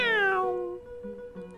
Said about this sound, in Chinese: 就在老鼠把小土豆的半个身子拉进洞里的时候，外面传来“喵”